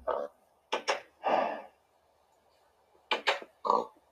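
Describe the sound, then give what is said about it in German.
Two quick clusters of short, snorting oinks from a little pig, about three grunts each, separated by a pause of quiet. The grunts are fairly loud, with no talking. “So, dann gehe ich mal mit dem Schweinchen zu unserem ganz, ganz, ganz schönen ähm, Ui Lele.”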